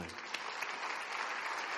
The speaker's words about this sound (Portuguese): Vamos aplaudir a palavra do Senhor.